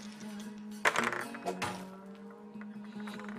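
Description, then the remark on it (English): Dice clatter and rattle in two short bursts, a sharp tumble followed by a softer second roll, over a steady low background hum; dice rolled in a tabletop mining game to see how much gold is won. “Uh, roll these and see how much gold we get.”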